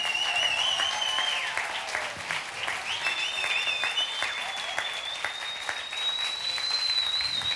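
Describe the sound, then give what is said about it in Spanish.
A crowd at the Casa de Jesús church claps steadily for several seconds for those over 70 years old, a dense, continuous patter of many hands at a fairly even loudness, with a faint high whistle-like tone running through it. “Un fuerte aplauso para los de mayores de 70 años.”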